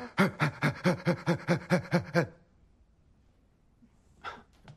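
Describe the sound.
A voice imitates a big dog panting and barking in the little dog, big dog exercise from the film Coda, with about nine quick, rhythmic, loud huffs over two seconds, then near silence and a short breathy puff at the end.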